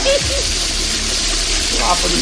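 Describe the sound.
A toilet flushes with a loud, steady rush of water filling the whole moment, a continuous gushing roar with faint voice-like murmurs underneath.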